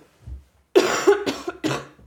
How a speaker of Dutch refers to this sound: weer aan het hoesten. Dit is al de derde keer in een half, iets meer dan een half jaar tijd dat ik ehm, gewoon dag en nacht aan het hoesten ben.